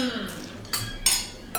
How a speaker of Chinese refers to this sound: 然后 此处应有碰杯声。